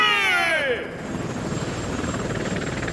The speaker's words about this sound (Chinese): 直升机带走了两只虎蟒，朝着警察局的方向飞去。